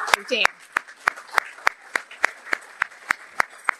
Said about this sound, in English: I mean, this room. Oh, let's let's clap.